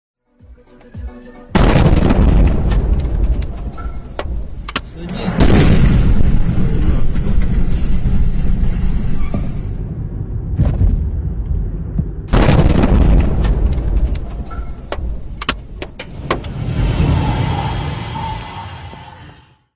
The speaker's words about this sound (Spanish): En Kiev, ciudadanos que iban escuchando música en su automóvil grabaron el momento de las explosiones.